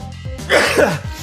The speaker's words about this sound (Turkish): Hapşırdım gerçek demek ki.